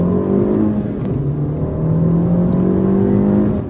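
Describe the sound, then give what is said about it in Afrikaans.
A small car engine, the 1.4 turbo of 110 kW and 220 Nm in the top-model S with a six-speed gearbox, revs and pulls hard through the gears, its tone climbing steadily, loud for nearly four seconds, with no voices. “Die topmodel is die S, die kom met 'n 1.4 turbo, 110 kW en 220 Nm, 0 na 100 in 8.5 sekondes.”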